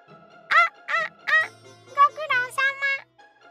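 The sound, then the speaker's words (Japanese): A voice imitates the cawing of the crow Kurosuke in a story: three loud, nasal caws in quick succession, then a faster run of shorter caw-like calls, clear over a quiet background. “目がつり上がり口が耳まで大きく裂けてその声はカラスのクロスケ”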